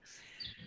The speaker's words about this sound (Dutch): Jullie horen misschien wel de vogeltjes op de achtergrond, want ze zitten buiten al.